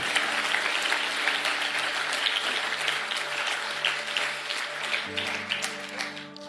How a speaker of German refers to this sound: Lass uns mal einen riesen Applaus geben, weil wir diese Entscheidung getroffen haben.